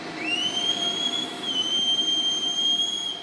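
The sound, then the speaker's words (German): A departing train rolls along its rails with a high, steady metallic wheel squeal that shifts pitch slightly midway, over a constant rumbling roar. It is fairly loud, with no voices. “Abfahrt!”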